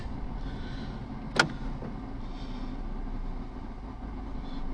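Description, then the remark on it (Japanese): Enclosed interior ambience of a parked car that is hot inside, with a steady low rumble and faint background hum, interrupted once by a single sharp click or knock near the middle; no one is talking. “もう最近はねて車でしかポッドキャストやってませんが”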